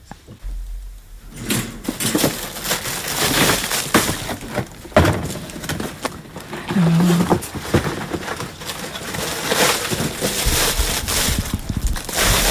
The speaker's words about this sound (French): Ça, c'est les sachets. C'est des sachets, tout à fait.